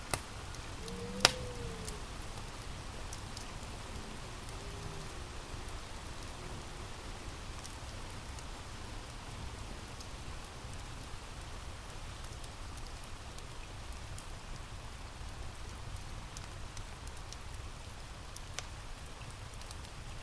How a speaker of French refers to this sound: Mais vous continuez d'entendre le feu crépiter dans la cheminée et le vent dehors murmurer, vous bercer.